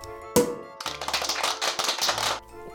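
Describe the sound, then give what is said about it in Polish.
A champagne cork eased gently from a slightly tilted, unshaken bottle, the cork held and twisted like a screw cap: one soft, muted pop, a short pause, then a steady hiss of escaping gas and fizz lasting a couple of seconds, with no talking. “Dziarsko, nie wstrząsam, pochylam lekko butelkę, trzymam ten korek, odkręcam, tak jakbym odkręcał...”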